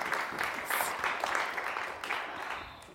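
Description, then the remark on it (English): An audience applauds steadily for a few seconds, many hands clapping in a dense, even patter that fades slightly toward the end, with no voices on top. “clap for that.”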